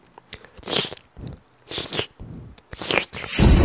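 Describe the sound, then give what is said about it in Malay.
Wet licking and slurping sounds come in three close, rhythmic bursts about a second apart, each a smacking, moist swipe, with a louder, rougher smack at the very end and no talking. “bunyi macam tu bunyi seperti suatu wig sedang menjilat something dekat belakang tu saya pun terfikir apa yang boleh dijilat kat belakang tu takkan darah”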